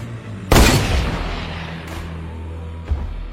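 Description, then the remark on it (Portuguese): A single loud gunshot from a hidden hunter cracks out and booms with a rolling echo that slowly decays, followed near the end by a fainter second thud. “Você ouve um tiro.”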